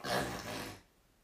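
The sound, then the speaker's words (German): A single loud, raspy snore imitated by a voice, a rough throaty rattle lasting under a second before it cuts off into quiet. “Und, äh, und es schnarcht laut.”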